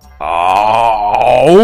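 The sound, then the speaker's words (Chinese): A person acting a story character disguised as a tiger imitates a tiger's roar to frighten a guard, with one loud, drawn-out vocal 'aooo' that holds steady, then swoops upward in pitch at the end. No other sounds accompany it. “糊涂虫学着老虎的样子，不停的发出可怕的吼叫声。”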